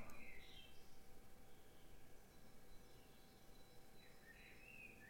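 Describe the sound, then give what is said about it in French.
Small birds chirp faintly at 6:30 in the morning, with a few brief, high calls near the start and end over a steady background hiss. No one speaks. “il est 6h30 du matin, j'espère que vous allez bien, j'espère que vous entendez les petits oiseaux derrière moi.”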